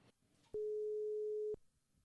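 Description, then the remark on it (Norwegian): A single one-second telephone ringing tone, heard from the caller's end while a call to a doctor goes through on a Sunday, a steady mid-pitched beep with faint background hiss before and after. “Skal vi se om hun tar telefonen, da, på en søndag.”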